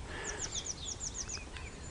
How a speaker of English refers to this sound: That thrush has more consistency in its voice and I've seen more shenanigans, certainly.